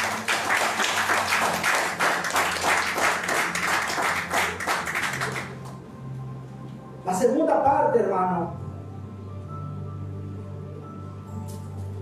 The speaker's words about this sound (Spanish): Hay una ofrenda de palmas a Jesús.